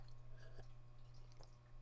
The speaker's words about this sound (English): excuse me, I was taking a sip of water you know, people don't talk about it enough, but water actually tastes pretty good.